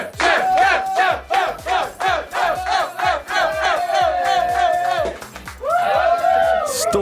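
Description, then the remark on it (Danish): A crew under the stage chants the word 'chef' over and over in a steady, rapid rhythm after their boss won The Voice award in 2019, then breaks into loud sustained cheering and shouting near the end. “Chef, chef, chef, chef, chef, og rigtig nok, som vores praktikant Nicoline sagde, så råber de jo chef, kan jeg godt høre nu.”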